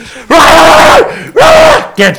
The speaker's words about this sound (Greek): Πήδα πάνω σε μάντρα και βγάλε άλλαλε κραυγέ.